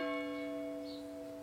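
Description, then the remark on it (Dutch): A single bell strike rings out, its bright layered tones holding steady and slowly fading as it hums on. No voices are heard. “We krijgen de klok, ja.”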